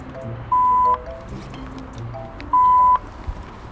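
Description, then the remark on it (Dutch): Two steady electronic beeps from an OV-kaart transit card reader at a train station, each about half a second long and mid-pitched, spaced two seconds apart over a low background rumble. “Even de OV-kaart.”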